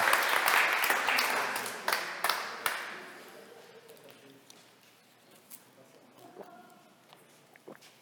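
An audience bursts into dense, steady applause for a supporter being thanked, which gradually thins out and fades over several seconds, leaving a few scattered claps and faint voices toward the end.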